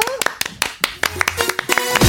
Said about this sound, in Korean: 네, 박수 보내드릴게요.